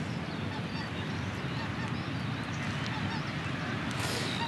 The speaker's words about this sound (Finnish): Toi vesiraja on tuossa 10 metrin päässä ja ehkä siinä nyt ei mitään suurempaa muutosta tässä ole tapahtunut, mutta hanhet meni just yli.